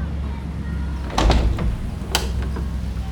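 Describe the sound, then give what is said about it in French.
The large doors of Carnegie Hall open at 7:50 pm before a concert, with a heavy low rumble and a couple of sharp clanks, followed by a second metallic thud, all against a steady background hum with faint crowd murmur as the crowd rushes inside. “À 19h50 précise, les portes s'ouvrent et la foule se rue à l'intérieur.”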